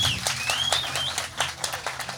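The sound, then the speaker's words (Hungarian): Machine-played canned applause sounding in the background at the Telekom Kraftkert festival stage: a steady, dense wash of many hands clapping at moderate loudness, with a high whistle rising and falling over it early on. “Itt szól a háttérben a gépi taps, de kérlek, hogy inkább élő tapsal üdvözöljétek.”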